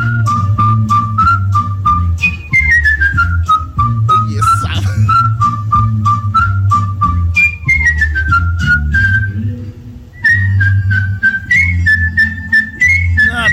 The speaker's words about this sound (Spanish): Ah, Escucha, este. Eh. Este es silbada.